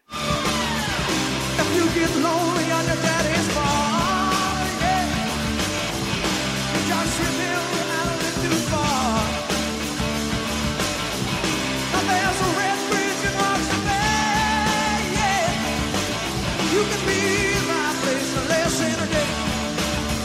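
A loud, dense rock song plays continuously, with driving drums, distorted guitars and a strained, shouting lead vocal, captured with a raw live-concert sound.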